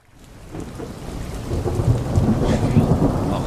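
A thunderstorm swells in from near silence, heavy rain hissing steadily while deep thunder rumbles and rolls underneath, growing louder and denser over a few seconds with no voices.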